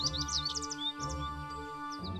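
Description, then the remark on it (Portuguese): Small birds chirp and trill in quick, high bursts, a flurry at first and then scattered calls, set over a steady, low musical drone. “O banhado ficava verdinho, as flores começavam a surgir por todos os lados e os passarinhos cantavam felizes.”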